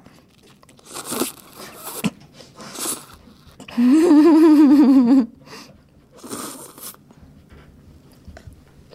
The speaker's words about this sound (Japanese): あ、ちょっともう一口食べよう。ここ、ここカットしていいですよ。ただ一口食べるだけだから。みんなすすると笑うからさ